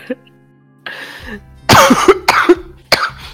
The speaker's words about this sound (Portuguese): Eu vou ter que fazer uma cirurgia para tirar minha tosse desse programa. Talvez você tenha que fazer uma... Deixa Talvez você tenha que fazer uma cirurgia mesmo, porque essa tosse só cresceu no tempo que eu não tive aqui.